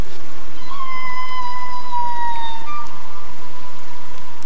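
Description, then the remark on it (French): A long, smooth, fully synthetic electronic tone, created to resemble whale song rather than sampled from real whales, glides slowly downward with bright harmonics for about two seconds over a steady hiss of rain-like noise, with no voices. “J'ai créé au contraire un son qui ressemblait à ça, qui faisait penser à ça, mais qui était 100% synthétique”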